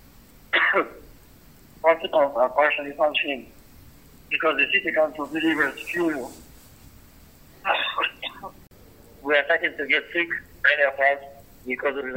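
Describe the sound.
A Red Cross worker in a bombed-out city speaks in short bursts in a voice message over a tinny, phone-like line, clearing his throat and giving a few rough coughs between phrases, fairly loud; he has fallen ill with a cold from the damp.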